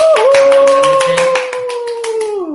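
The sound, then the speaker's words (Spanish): Applause for a special guest on a show: quick, uneven hand claps rattle on for a couple of seconds while a long, steady whistle-like tone holds above them, then slides downward as it fades out. “Al que un aplauso como a todos nuestros invitados, pero en este caso con un valor especial que es que tenerle aquí esta noche para nosotros muy grande, como corredor y como amigo.”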